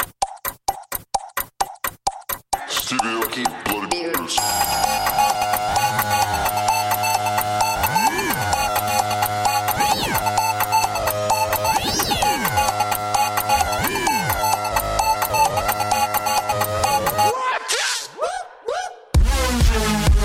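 A Venetian electronic dance track plays loudly: choppy stuttering synth stabs open it, then a dense, distorted synth wall kicks in with rising pitch sweeps, before breaking into sharp glitchy cuts at the end.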